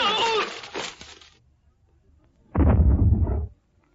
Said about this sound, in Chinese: 二子刚踩踏了郑大爷家的小厨房，推土机手吴海波屋里又发出了爆炸声。这声爆炸不是地雷，也不是炸弹，是吴海波进行的小试验。